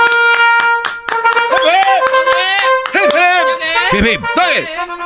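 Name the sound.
applause and clapping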